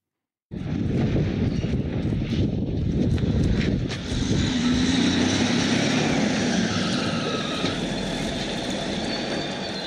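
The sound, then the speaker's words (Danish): A heavy wheel loader roars loudly and steadily, its diesel engine straining as it breaks a 14-metre-wide hole in a 6-metre-high wall of Vridsløselille State Prison, Denmark, in a 1995 prison escape, with a few brief knocks and scrapes early on and a whining tone riding above the rumble. “Og det vi hører her, det er lyden af en gummiged, som øh, rent faktisk laver et 14 meter bredt hul i en 6 meter høj mur.”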